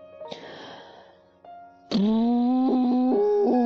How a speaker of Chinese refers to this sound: 呜，这只牛就吹了它的大喇叭，是不是？What a funny noise！好开心的噪音啊，声音啊。